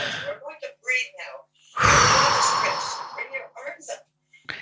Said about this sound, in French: On va prendre une respiration. ouais, on prend une respiration.